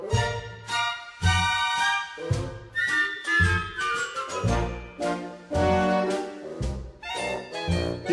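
A vintage-style love song recording plays on its own, with bouncy, rhythmic orchestral chords, bright high melodic lines and a steady plucked bass pulse at a moderate volume.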